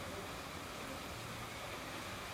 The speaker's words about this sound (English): It's just drizzle, right? Yeah.